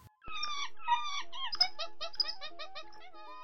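Monkeys screech and chatter in a rapid series of shrill, squealing calls, loud, running for a few seconds with no voices.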